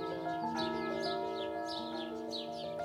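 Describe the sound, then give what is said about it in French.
Birds whistle and chirp in the foliage in quick, repeated calls, a few every second, over a steady sustained tonal drone. No one speaks. “Les oiseaux sifflaient dans le feuillage.”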